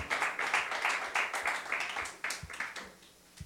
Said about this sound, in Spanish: Den oferta de palmas al Señor con todo su corazón.